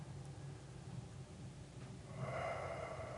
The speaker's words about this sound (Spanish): si solo por algunos segundos, si solo por un, una respiración. Dice ah, ah, varios personas que si toma una sola una respiración con toda la atención adentro